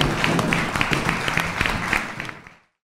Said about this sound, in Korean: 오늘 함께 해주신 변호사님하고 또 교수님께 박수 좀 부탁드리겠습니다. 감사합니다.